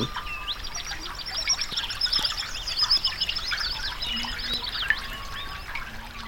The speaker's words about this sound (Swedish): fågelkvittret som ni nu hör, det tillägnar jag med tacksamhet min granne My.